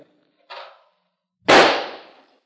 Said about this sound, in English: Uh, I'd like a shot at one of those clay pigeons. Use my gun